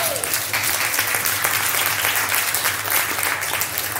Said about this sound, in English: But you can clap your hands. Yeah.